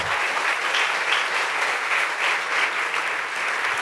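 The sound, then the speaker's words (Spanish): Sustained applause for the Lord from an audience, a dense steady wash of many hands clapping at an even loudness for the whole stretch, with no voices standing out. “Dele fuerte ese aplauso al Señor.”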